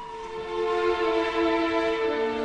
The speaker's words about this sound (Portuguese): Ouçam! Ouçam! Ouçam essa buzina que se aproxima. É o carro dele! É Gilberto chegando!